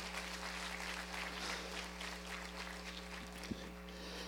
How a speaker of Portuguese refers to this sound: Pode aplaudir o Senhor, pode aplaudir o Senhor.